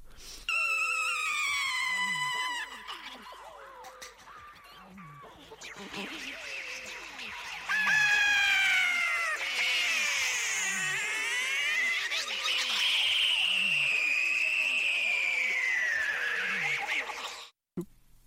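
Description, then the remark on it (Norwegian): Warped, sped-up vocal sounds chirp, squeal and warble continuously like a crowd of small animals and birds, growing denser and louder midway before cutting off abruptly near the end; a human voice recorded with a microphone and altered to sound like animals, with no instruments used. “Han har laga lyder sjøl, han har ikke brukt noe instrument. Han bare sier Og så endra på det, så det skal høres ut som dyr.”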